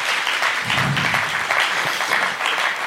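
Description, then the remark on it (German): Steady audience applause for the Baby Boomer generation after a show of hands: a dense crackle of many hands clapping at an even, fairly loud level throughout, with a brief low murmur of voices underneath. “Cool, auch ein Applaus für diese Generation.”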